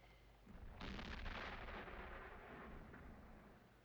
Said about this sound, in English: you hear cannon fire starting in the background and just constantly roaring and like thunderous clouds are coming in, but it is literally cannon fire.